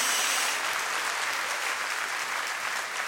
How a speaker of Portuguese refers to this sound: Dá uma salva de palmas ao Senhor, celebra por isso em nome de Jesus.